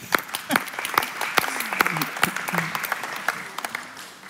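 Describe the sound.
An audience applauds with a steady patter of many hands clapping, dense and moderately loud throughout, with faint murmuring voices mixed underneath.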